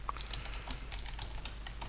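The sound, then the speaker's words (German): Rapid, irregular keyboard clicking fills the two seconds, a quiet patter of keystrokes over a low steady hum, with no voices. “Man, man hört es im Hintergrund klickern.”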